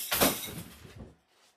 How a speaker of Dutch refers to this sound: Oeps. Oké. Dat was mijn vaas. Die is nu ook kapot.